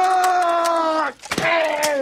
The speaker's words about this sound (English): and your family screaming, Oh my god, we're burning alive! No, I can't feel my legs!